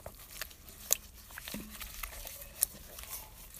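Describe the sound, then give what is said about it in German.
Water dyed India Orange is tipped onto a top sitting in a bowl, giving a soft, continuous crackly trickle with a couple of sharp little ticks. It's faint, and no one speaks. “wird jetzt gleich da dieses Wasser von India Orange auf meinen Top kippen.”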